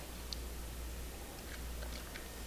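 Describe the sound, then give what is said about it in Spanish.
A few quiet mouth sounds of someone taking a first morning sip of bitter coffee without sugar, with soft wet slurps and swallows over a low steady hum, no talking. “Eso sí, primero tengo que darme ese sorbito amargo que comparto de lunes a viernes junto a ustedes.”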